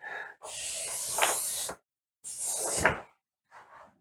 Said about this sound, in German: Ich zeichne jetzt hier ein Strichmännchen, genau auf dieses wunderbare große Plakat. Es knistert, so, dass es auch drauf ist.